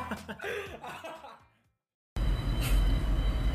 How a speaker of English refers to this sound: As the train's going by.